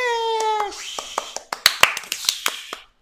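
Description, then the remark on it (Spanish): A high, drawn-out vocal cry gives way to a single woman clapping for herself as she is introduced as a guest: roughly eight or nine loud, sharp claps at an uneven pace, trailing off into quiet. “El aplauso fuerte fue de ella misma.”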